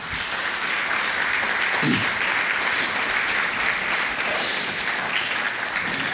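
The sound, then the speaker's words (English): Steady applause from a sizable crowd fills the space, a dense, even wash of clapping that holds at the same loudness for several seconds without any talking. “Hey, let's give them a hand.”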